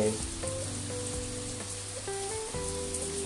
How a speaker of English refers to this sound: am in a place which i cannot pronounce for the life of me in uttarakhand seeing the rains enjoying the weather